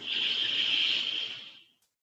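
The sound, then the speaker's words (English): A long, deep breath drawn in through the nose during a breathing exercise, a steady airy hiss that swells and holds for over a second before tapering off, with no talking. “So, big inhale”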